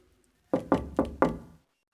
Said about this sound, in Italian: Bussa alla porta della scala segreta.